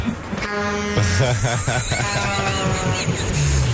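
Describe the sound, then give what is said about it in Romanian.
A lorry rumbles past, its loud engine drone wavering in pitch over a few seconds, with a brief blaring horn-like tone near the start. “mă gândesc, asta e și stereo, așa, și te, te sperii dacă ești cu muzica dată dar și trece tirul.”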